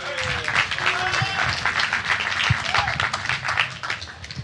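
An audience breaks into steady applause, dense overlapping claps sustained for several seconds at a fairly even loudness, with faint murmuring voices mixed in.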